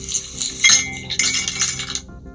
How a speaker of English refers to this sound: Como ese hielito que acaba de caer.